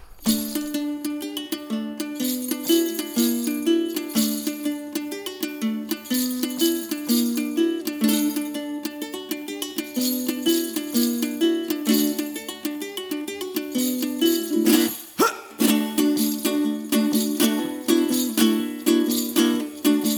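An acoustic song plays steadily and fairly loud, with rich sustained tones and a continuous strummed texture, briefly cutting out for a moment before resuming.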